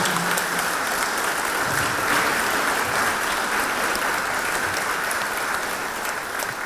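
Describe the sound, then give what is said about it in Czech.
Steady, dense applause from an audience, many hands clapping at once in a continuous crisp patter that holds an even loudness for several seconds without pause or voices. “My mám tleskáme.”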